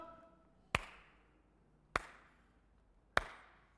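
slow clap

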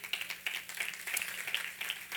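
audience applauding

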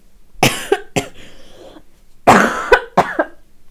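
painful cough

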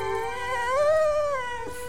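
dog whining and howling

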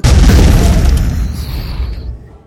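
explosion boom sound effect

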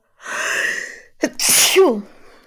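sneeze

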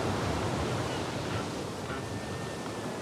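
sea waves heard

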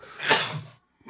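sneeze

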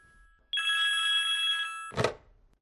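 telephone ringing

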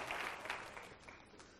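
audience clapping

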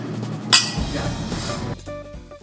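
glasses clinking

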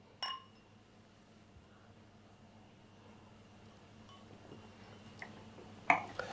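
glasses clinking

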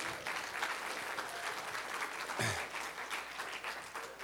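audience applauding loudly

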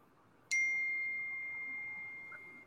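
phone notification ding

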